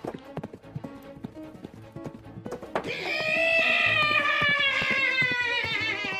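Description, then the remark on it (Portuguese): A horse in the woods: brisk hooves clip-clop in a quick rhythm for a few seconds, then a loud, drawn-out whinny rises over them while the hoofbeats keep going underneath. “É Elazão, o espírito do cavalo de meu falecido pai. Ele está no meio da mata como se chamasse-me para aquele morro.”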